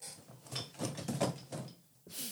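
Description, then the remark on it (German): A drawer slides open, followed by a quick series of soft knocks and rattles as someone shuffles objects inside while looking for something, fairly quiet, ending in a brief scraping slide. “Ich guck mal eben, ich habe in der Schublade noch irgendwas.”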